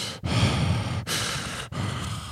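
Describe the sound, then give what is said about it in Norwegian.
A voice imitates the heavy, laboured mouth breathing of someone with influenza: three loud, rasping breaths in quick succession, with no talking. “Du puster hele tiden med munnen, og så har du veldig rar stemme.”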